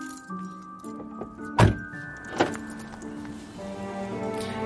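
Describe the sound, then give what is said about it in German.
A car being locked by its driver after getting out: a sharp click-thunk near the middle, then a second softer one, with keys jangling faintly against a steady low hum and tonal background noise. “und ähm, als ich mir dann aber das Interview nochmal angehört habe und ich hatte ja von Anfang an mein Tonband an, als ich ausgestiegen bin, hört man, wie ich mein Auto absperre.”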